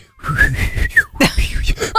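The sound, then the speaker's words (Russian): Someone whistles in imitation of a bird's call: a long, steady high note with a small rise and a quick dip, then a string of shorter warbling notes over a low background rumble. “на третий свист публика перестала слушать Ларису. Они сразу стали слушать эту птицу”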